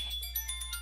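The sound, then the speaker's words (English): A phone alarm ringtone chirps in a quick, repeating pattern of bright electronic tones, fairly soft, with no voices over it. “Oops, that's my alarm going off.”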